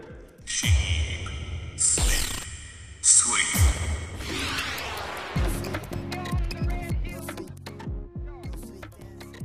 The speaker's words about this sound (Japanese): 聞いてもらったのは今年7月からシリーズ最新作の放送も決定しております現在絶賛再放送中テレビアニメ「ホリミア」のオープニングテーマだった1曲